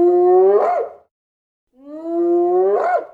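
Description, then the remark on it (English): Two loud, high-pitched giggling calls from a huge hyena at night outside a Hessian fence by a long-drop toilet, each drawn out and ending in a wavering, giggling upturn, separated by a brief silence, alone. “we heard a movement outside a scuffling, a snuffling, a large dark shadow, and then the inevitable, terrifying, high pitched giggle.”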